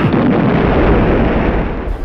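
A deep, muffled car explosion rumbles heavily for about two seconds, dense low-end roar sustained throughout with no clear decay, loud, no voices present.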